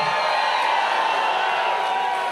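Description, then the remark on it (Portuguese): A large crowd at a worship gathering shouts and cheers together in a sustained, loud roar of joyful voices, shouts of joy and victory, with whoops rising above the dense wash of sound throughout. “Onde está o povo que conhece os vivas de júbilo?”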